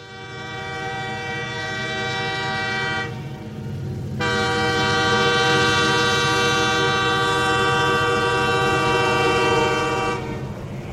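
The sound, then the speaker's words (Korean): A train on a railway across the Mongolian steppe rumbles past while its horn blares in long, loud, steady blasts, with a short break in the middle before the horn resumes over the heavy clatter of the rail cars. “거대한 쇳덩이가 무시무시한 소리와 속도로 덮쳐온다 해도 말과 양들은 그것에 대한 두려움이 애초에 없어 보인다.”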